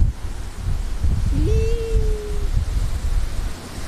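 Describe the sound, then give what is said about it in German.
A continuous roar of waves rolling onto a shore, with low rumbling surges and a steady hiss of surf. A brief faint whine rises and holds partway through; no one speaks. “Ich glaube, die Wellen hört man trotzdem.”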